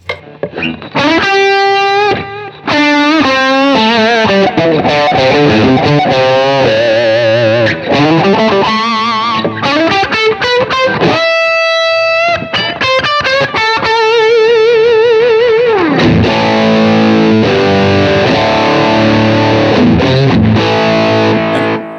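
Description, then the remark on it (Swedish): A distorted electric guitar played through a Stone Grey amp simulator growls through a run of riffs and bending lead lines, with thick harmonics and sustained notes, loud and steady throughout with no voices. “Den morrar liksom ganska fint den här Stone Grey.”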